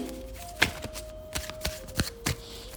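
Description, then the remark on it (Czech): Tarot cards being shuffled for a reading about a future partner: a series of short, crisp riffling snaps and soft slaps at an irregular rhythm, with a faint steady hum underneath and no voices. “A já už se dívám na vaši fotku, míchám toho karty a my se spolu podíváme,”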